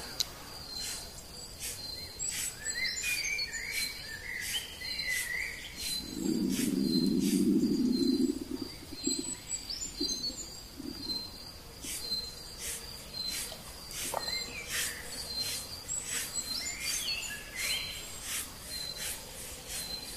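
Forest ambience with a steady high insect drone, scattered soft bird chirps and calls, and a brief low rumbling patch partway through; no one speaks.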